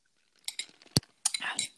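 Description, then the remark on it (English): A single sharp clink of glasses touching in a toast, followed by soft, wet sipping and slurping sounds, all fairly quiet with no one talking. “let's let's take a sip.”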